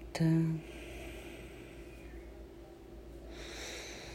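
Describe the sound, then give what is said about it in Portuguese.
A brief nasal snort-like burst at the start, then a slow, quiet breath drawn in and released, soft, with no talking, as part of a guided breathing exercise. “Mais uma vez inspira e solta.”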